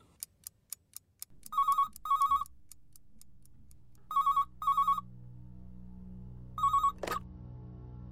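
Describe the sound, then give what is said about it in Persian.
A telephone rings in loud, warbling double bursts, three rounds separated by pauses, over a low steady hum; a few sharp ticking clicks come just before the first ring. It is an incoming call from a friend in Tehran. “امروز دوستی از تهران تلفن کرد”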